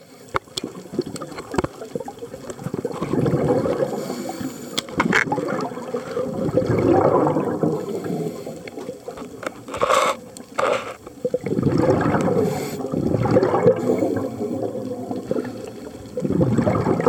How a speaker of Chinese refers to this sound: 穿上潜水装，背上气瓶，再带上器材，潜入十公尺深的海里，只能听得见自己的呼吸声与废气排入水中的咕噜咕噜声。